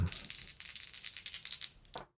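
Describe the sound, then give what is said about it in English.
An action die and two challenge dice are rolled in a tabletop game, rattling and clattering for about two seconds, a quick run of bright clicking taps, ending with one sharper final knock as they settle. No voices. “So we're going to roll plus edge, which is plus two, and uh, we're going to find out what happens to the next leg of this exploration.”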